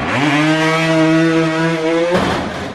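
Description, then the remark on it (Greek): A voice imitates a boat's outboard motor revving, holding a steady, buzzy drone for about two seconds before it breaks off into a rough, sputtering burst. It is loud. “Μπι, μπι, μπι, μπι, με την 20 μηχανή. Κούτσα, κούτσα. Δώσε γκάζ, μωρέ, ανάπηρη.”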